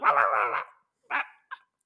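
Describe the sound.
Someone imitates the barking of a dog, a mother's dog that barks as soon as visitors arrive: fairly loud, one long, drawn-out bark followed by two short, sharp yaps after a brief pause, with no other talk.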